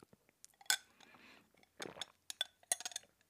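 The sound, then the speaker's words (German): A glass clinks sharply, followed by a quiet sip and a swallow of the last bit of water in the glass, then a few small clicks and mouth noises. No one speaks. “Und ich muss jetzt erstmal noch den, das letzte Schlückchen Wasser aus meinem Glas trinken, weil mein Hals tut verdammt weh.”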